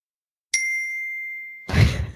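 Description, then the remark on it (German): A single high C struck on a glockenspiel rings out bright and clear, sustaining for about a second before a brief burst of rustly handling noise cuts in. No one speaks. “kannst du nochmal so ein tolles Glockenspiel ähm, ah. abspielen.”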